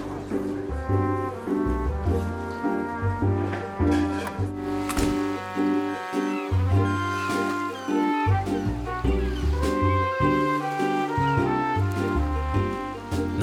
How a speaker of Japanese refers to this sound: なので、この BGM でも高い音を抑えてあげると、壁を隔てた場所とか、遠くの方とかで鳴ってるっていうそういう演出になるんです。ちょっと鳴らしてみますね。室内からドアを開けて外に出るっていうのを音だけで表現すると、こんな感じになります。